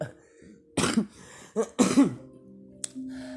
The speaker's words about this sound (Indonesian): batuk-batuk gue ya